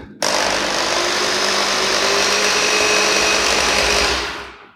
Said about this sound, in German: Ich will einfach mal gucken, ob das hier hörbar ist. Ähm, deshalb spreche ich jetzt auch einfach erstmal in dieses Rührgeräusch nicht rein. Kleinen Moment.